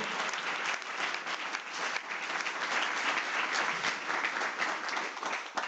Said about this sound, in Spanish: ¿Cuántos dicen amén? Alguien que le dé un aplauso fuerte a Jesús, que lo crea conmigo.